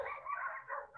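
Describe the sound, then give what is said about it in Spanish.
Dogs yip and bark in a continuous, high-pitched burst of overlapping cries, fairly faint and steady for about a second, with no one talking. “disculpen los perros”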